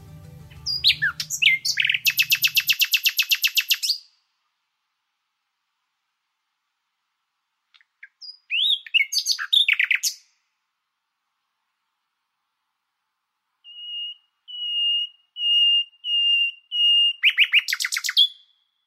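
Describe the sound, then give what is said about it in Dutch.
A common nightingale sings in the Kroondomeinen near Niersen in Gelderland, Netherlands, in separated phrases: rapid rattling trills, sharp chirps, then a series of pure drawn-out whistled notes building to a fast flourish, clear against silence. “Daarom heb ik met Henk afgesproken in de kroondomeinen bij het Gelderse Niersen om te luisteren naar het verhaal achter het geluid van de nachtegaal.”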